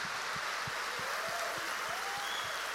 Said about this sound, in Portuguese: E agora sim, eu quero que você dê um aplauso bem forte para esse povo, para esses irmãos. Glória a Deus, obrigado, gente. Obrigado. Pode aplaudir mais.